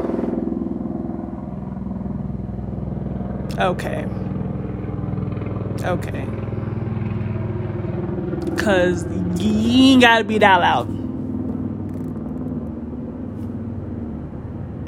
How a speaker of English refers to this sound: You can hear the helicopter.